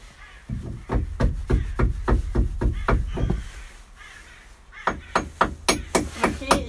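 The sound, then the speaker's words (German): A hammer taps rapidly and steadily at a bent nail to straighten it, about ten sharp metallic strikes, a short pause, then another quick run of blows. “Ah nee, ich schlag den jetzt einfach wieder gerade.”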